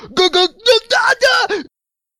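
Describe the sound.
A single voice acts out a scream of pain as a string of five short, strained cries with wavering pitch, loud, then breaks off into silence.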